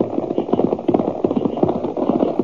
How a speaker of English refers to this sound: We were just getting past those rocks when I heard what sounded like about a half a dozen horses coming toward me.